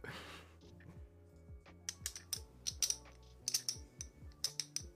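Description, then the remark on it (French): Poker chips clicking and clacking as they are handled, a quick irregular run of sharp taps over a low background hum, with no voices. “Des jetons de poker.”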